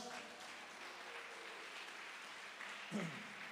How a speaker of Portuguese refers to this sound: Aleluia, aleluia, aleluia. Aplauda ele bem forte.